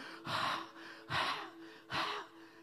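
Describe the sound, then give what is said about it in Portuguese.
Three heavy, labored gasping breaths of a man on a cross straining to breathe in pain, each a sharp noisy intake spaced about a second apart, fairly loud with no talking and a faint steady hum beneath. “Escute a sua respiração ofegante.”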